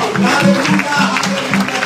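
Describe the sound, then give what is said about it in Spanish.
An audience applauding for the Lord, a dense, sustained patter of many hands at an even loudness, with a low hum of voices mixed in underneath. “Entonces le un aplauso al Señor.”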